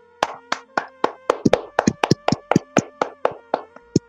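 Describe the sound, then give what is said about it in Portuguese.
A short round of hand clapping in tribute to Suzana Amaral: sharp, crisp claps at a fairly steady pace, around fifteen in four seconds, some landing in quick doubles as if from more than one person, with no talking. “Um salvo de palmas aí para a Suzana Amaral.”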